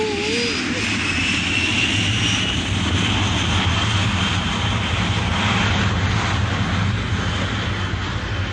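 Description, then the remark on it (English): A propeller airplane engine roars steadily and loudly, a deep droning hum with a rushing wash of air over it, as the plane powers up for takeoff. “Don't you think you could get this thing up in the air?”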